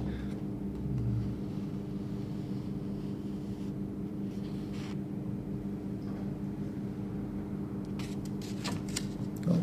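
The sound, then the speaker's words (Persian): Paper pages are turned by a speaker leafing through to check that nothing was left out, with a few crisp, brief rustles, one midway and a quicker cluster near the end, over a steady low mechanical hum. Nobody speaks. “ببخشید من دارم برای کسایی که آفلاین گوش میدم توضیح می دارم ورق میزنم ببینم چیزی جا نمونده سکوت دلیلش اینه”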